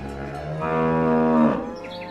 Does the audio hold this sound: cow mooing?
yes